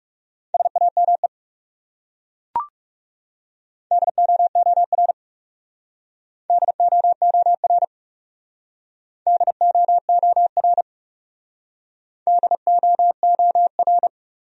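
Morse code sent at 30 words per minute, spelling words from a top 300 words speed practice list: five short runs of rapid, steady mid-pitched beeps with pauses between, plus a single sharp click early on. No talking.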